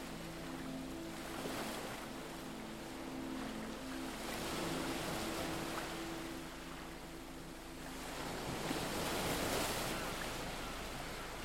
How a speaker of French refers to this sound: vous vous sentez confiant et serein concentré sur le bruit des vagues et la brise rafraîchissante qui effleure votre visage.